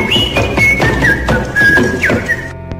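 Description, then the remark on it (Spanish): A soldier whistles a simple, wavering tune over a steady drumbeat, played by a beggar, that thumps about twice a second; both are clear, and the music cuts off abruptly near the end. “El soldado acepta y juntos se divirtieron haciendo música, el mendigo con su tambor y el soldado con sus silbidos.”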